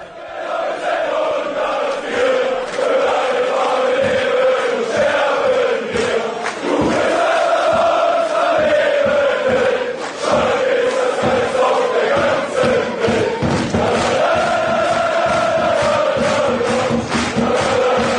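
A large crowd of Schalke 04 football supporters chants in unison, a loud sustained melodic singing with rhythmic surges and scattered claps throughout, no individual speech standing out.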